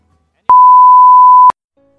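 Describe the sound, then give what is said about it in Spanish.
A single steady electronic beep from the Sinergia answering machine, a pure mid-pitched tone lasting about one second, loud and clean with a sharp start and stop, signaling to leave a message. “Por favor, deja tu mensaje después del VIP.”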